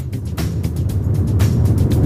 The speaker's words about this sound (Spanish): Creíamos que a esta hora estaba usted ya en el aeropuerto, por aquello de garantizar el buen sonido, pero la pillamos todavía en el coche camino del aeropuerto.